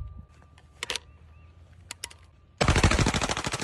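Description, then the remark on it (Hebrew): A few isolated sharp gunshots ring out, then a sustained burst of rapid automatic fire erupts, loud, with metallic impacts rattling through the continuous volley, as Kid Rock shoots at Budweiser beer cans set on a table. “ולוקח דקלה אה, קופסת אה, בירות, בוא נגיד ארגז בירות עם פחיות של בדווייזר, מעמיד אותם על שולחן, לוקח כמה צעדים אחורה ואומר לצופים שלו, אני רוצה שתראו מה אני חושב על זה, ומתחיל לחורר את הפחיות.”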